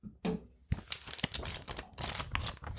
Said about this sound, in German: Aber du hast ein echtes Heft, ne? Kannst du mal umblättern? Alles, alles mach, mach doch mal so einen Blättersound.